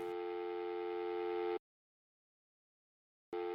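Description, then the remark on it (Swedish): A steady electronic telephone ringback tone on a call to a mother sounds for about a second and a half, falls silent for a similar stretch, then starts again. It is clear, with no voices. “Jag ringer min mamma och säger att Tom är borta och att jag är orolig för honom.”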